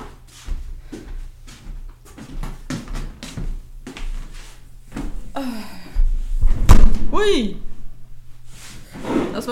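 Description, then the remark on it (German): Shuffling and movement lead into a single solid door slam, followed by a brief creak and more scuffing, with muffled voices in the background. “Ähm, ich muss mal die Tür zumachen.”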